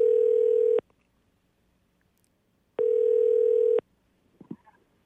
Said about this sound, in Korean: 전화 연결 한번 해보겠습니다. 자.